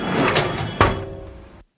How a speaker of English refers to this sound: With one hand, he slams shut an open desk drawer.